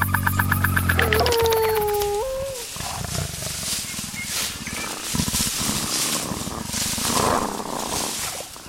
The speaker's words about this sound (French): J'entends à peine quelques mouvements et un ronronnement. Un chat en pleine savane hmm, Non, ça ressemble plutôt à un grognement. Ah mais oui, c'est le guépard.